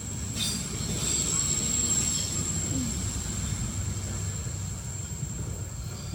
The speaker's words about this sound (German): wir warten kurz, bis der Zug hier vorbeikommt,